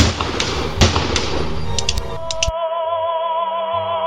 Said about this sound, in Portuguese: Léo acerta dois tiros na cabeça de Diego, que caiu ao lado de Lilian.